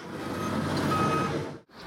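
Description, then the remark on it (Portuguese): Heavy machinery, brought in after rescuers end the search for survivors and begin searching for bodies, rumbles loudly with a high, steady reversing alarm tone sounding over the engine before everything cuts off sharply near the end. “o comandante decidiu encerrar as buscas aqui e começar a usar um maquinário pesado, né?”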